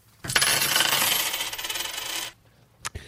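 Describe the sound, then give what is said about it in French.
A loud cascade of coins pouring and jingling for about two seconds, bright and metallic, followed by a couple of single coin clinks as it settles. No voices. “Ça, c'est le son pas communiste. avoir de l'argent, c'est pas communiste.”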